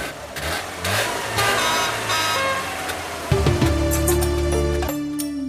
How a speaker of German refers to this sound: der Trabant ist das leiseste Auto der Welt. Wenn du drin sitzt, kannst du dir mit den Knien die Ohren zuhalten.